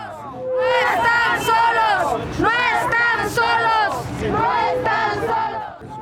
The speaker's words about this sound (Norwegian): Dere er ikke alene, ropte demonstranter som deltok i en protestmarsj i Mexico by sist mandag.